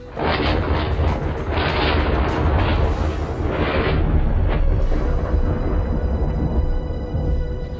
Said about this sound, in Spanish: No tardó en desatarse una violenta tormenta nocturna.